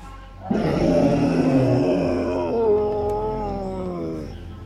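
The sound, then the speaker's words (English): A large animal lets out a deep, rumbling growl lasting about four seconds, starting rough and gravelly before stretching into a steadier, moaning tone. It is loud, with nothing else around it. “It's midday, but the sun is kind of peeking through the leaves above, and you hear two birds arguing, like ah, ah, ah, ah, ah, ah, and then you hear this large, deep growl.”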